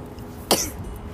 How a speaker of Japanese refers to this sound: ああ失礼しましたすごく寒い中で喋っていたら咳とくしゃみが同時に やってきました